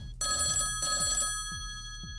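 A telephone rings in repeated bursts, a bright electronic trill pulsing twice over a steady hum, loud and close with no one talking.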